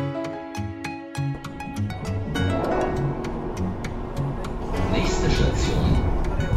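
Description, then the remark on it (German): An S-Bahn commuter train pulls into Kettwig station with a steady loud rumble and repeated clacks of wheels over the rails, and a high brake squeal rises toward the end. “Antje Peters Reimann wartet schon auf dem Bahnsteig, als die S-Bahn einrollt.”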